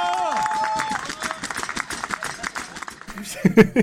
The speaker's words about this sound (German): Bis bald und das ist dein Applaus.